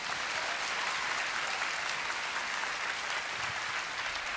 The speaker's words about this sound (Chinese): 我们做每一好要拍手，我们就大声的拍手。